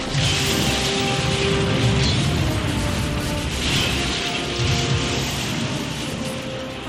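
A van, rolling in neutral and gaining speed, is steered sharply off the road. It careens off in a loud, sustained roar of grinding and rumbling, with scraping and rattling crashes running continuously throughout and no voices.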